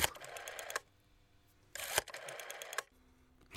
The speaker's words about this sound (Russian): На связи Москва. Так, сначала нужно набрать телефонный номер.